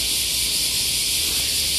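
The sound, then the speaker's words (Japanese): A dense, steady wall of cicada buzzing, from cicadas such as large brown cicadas (aburazemi), fills the air outdoors, loud and unbroken like a continuous sizzling hiss with no pauses or voices. “今もこのセミの鳴き声っていうのが入ってると思うんですけどずっとこの音ですね、うん、昔はねこのいろんなセミの鳴き声がつくつく帽子であったり、ね、ミンミンゼミであったりっていうのが、ね、入り混じってたように思うんですけど今はやっぱりアブラゼミとかね、まクバゼミみたいな風になってきてますね。”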